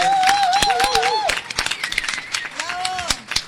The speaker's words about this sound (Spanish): Además, mira, ¿oíste? Hay, hay aplausos en el set para el premio Cervantes 2017.